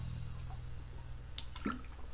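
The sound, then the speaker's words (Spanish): Soft liquid sounds of someone sipping water: a few small sips and drips of water over a steady low hum, with a brief gulp-like burst near the end and no talking. “un poco de agua, un poco de néctar de los dioses, que hoy no es mucho néctar, pero es agua.”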